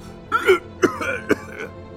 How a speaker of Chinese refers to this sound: 老馆长激动的又咳嗽起来。